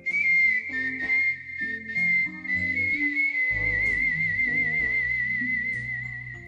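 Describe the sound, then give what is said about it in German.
A steady, clear, bright whistled melody with slight wavering pitch, made by palatal whistling with the air passing over the palate and cut at the teeth, over a soft piano-like accompaniment for several seconds; no one speaks. “den labial erzeugten Pfeifton, der mit dem Kussmund, den kennen wir ja, beim palatal erzeugten Pfeifton geht die Luft über den Gaumen und wird an den Zähnen geschnitten.”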